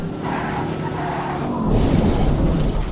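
In a video game, a car's loud engine drone builds, then the car crashes into a truck trailer with a heavy shattering, crunching impact, followed by sustained rumbling debris and low-end boom, all without speech.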